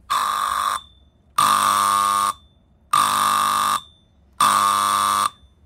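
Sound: alarm going off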